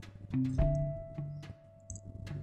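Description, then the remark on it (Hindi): A long, steady wolf howl holds one sustained pitch for a couple of seconds, fairly quiet, with scattered soft knocks and rustles in the background. “और पुराने महलों में ऐसा ही माहौल रहता है और ऐसे भूत जैसे नौकर और भेड़िए भी रहते हैं तभी भेड़िए के रोने की आवाज आने लगी”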